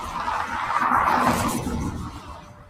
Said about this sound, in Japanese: 相変わらず車の音がうるさそうですけど。